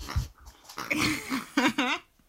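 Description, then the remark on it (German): A dog standing right beside the speaker grunts and whines in short, breathy bursts, wanting a toy pig thrown, a few vocal pulses rising and falling over about two seconds, with no talking. “ich höre das im Hintergrund so ein Grunzen.”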